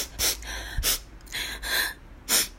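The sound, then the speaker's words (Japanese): A voice imitates the sniffling of mothers crying at the back of a graduation ceremony, making about six short, wet nasal inhales in an uneven rhythm, moderately loud, with no talking. “卒業式になると後ろでお母さんたちがみんな”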